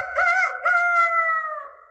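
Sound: rooster crowing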